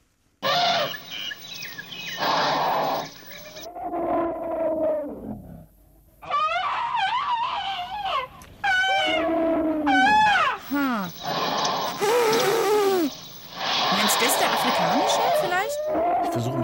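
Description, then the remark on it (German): Elephants trumpet and call repeatedly, loud, with brassy blasts and wavering, rising-and-falling cries following one another over about sixteen seconds, with brief pauses between bursts. “Und jetzt hören wir denen doch mal zu, ob die unterschiedlich klingen, ob wir raushören können, wer da jetzt so trötet und Geräusche macht.”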